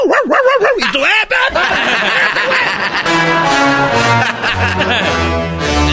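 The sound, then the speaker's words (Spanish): A dog barks and yelps in a quick burst of wavering, whiny calls over the first second or so, then gives way to steady background music. “Y de, repente sale un perro.”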